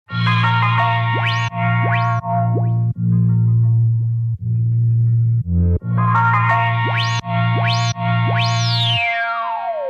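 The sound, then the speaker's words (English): A looping sampled electronic beat in the Chompler app with heavy bass and bouncy, rising boing-like synth sweeps; midway Chompler's low-pass filter slider is brought down, darkening the high end and leaving mostly the bass line, then the bright tones return. “And as you heard, as I started bringing down the low pass slider, you could hear more of the bass line, but then you can't really hear the sample that much anymore because it gets filtered out.”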